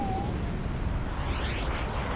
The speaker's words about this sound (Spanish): Ciudad de Nueva York, 26 de octubre de 1974. Justo antes de la medianoche. Cinco explosiones acuden a Manhattan.